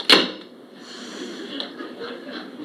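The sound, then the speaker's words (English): Watson closes a door at Holmes's request: it shuts with a single sharp thud near the start, followed by a short ring-out and then quiet ambience with faint shuffling, with no one talking. “Close the door, Watson, please.”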